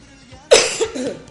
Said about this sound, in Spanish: está, tosiendo, yo también toso aquí, no se preocupen. Están, todos tosiendo.